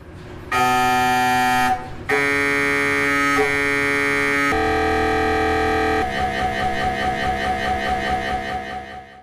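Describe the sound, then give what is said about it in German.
Loud, harsh electronic buzzing from MRI gradient coils, shifting through several distinct tones in blocks, ending in a rapid pulsing knock, continuous with no talking. The tones differ because the gradient coils vibrate at different speeds depending on the MRI image being made. “Und die verschiedenen Töne entstehen eben dadurch, dass diese Gradientenspulen je nach Aufgabenstellung äh, an dieses gerade äh, MRT-Bild, was da entstehen soll, unterschiedlich schnell eben vibrieren.”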